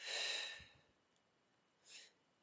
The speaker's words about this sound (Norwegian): Jeg setter meg godt til rette i stolen, og så lukker jeg øynene, og så puster jeg godt inn. Og så puster jeg ut.